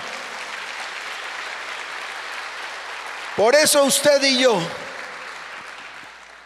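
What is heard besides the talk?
audience applauding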